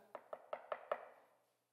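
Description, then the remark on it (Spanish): Five quick, evenly spaced knocks on the wooden front door of a house, fairly loud, each rap ringing with a hollow thud that fades after the last knock. “¿Se imagina usted que de repente escuchara en la puerta de su casa?”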